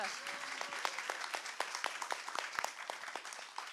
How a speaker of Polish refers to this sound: brawa dla niego, ojciec chrzestny.